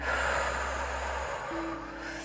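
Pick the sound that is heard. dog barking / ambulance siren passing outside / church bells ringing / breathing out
breathing out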